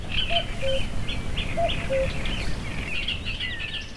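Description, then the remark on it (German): A red-backed shrike chirps in short, scratchy bursts while a cuckoo's paired low notes repeat twice over a steady background rush, with no voices, heard after sunset from a boat anchored overnight among lakes and ponds edged with reeds and floodplain forest. “Baden nach Sonnenuntergang und alles, was wir hören, ist das Gezwitscher des Neuntöters und den Ruf des Kuckucks.”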